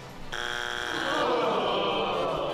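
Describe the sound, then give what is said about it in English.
A loud buzzer kicks in abruptly and holds a harsh, steady electronic drone for over two seconds, its rough, buzzy tone never wavering. No one speaks over it. “Um, ah, just buzz me.”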